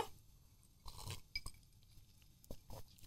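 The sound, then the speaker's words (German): Ice cubes clinking in a martini glass: several quick, bright clinks and rattles at irregular intervals, not very loud, with no voices. “Und für mich gibt es ein Geräusch, es ist das Glas Martini, wo die Eiswürfel drin klappern.”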